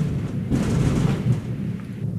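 nature, thunder

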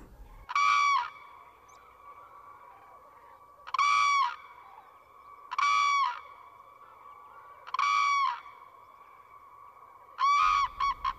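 bird, common crane calling

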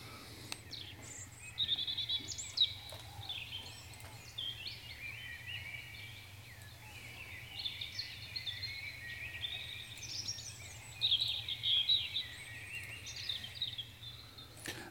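bird, european robin singing

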